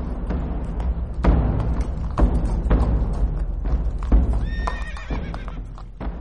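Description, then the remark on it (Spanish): A horse ridden by a man clip-clops along at a steady walking rhythm, hooves thudding on the ground, and midway through it lets out a brief high-pitched whinny. “Tras ellos, a caballo, iba un hombre oscuro, la nariz cubierta por una manta y atravesado sobre la silla un rifle.”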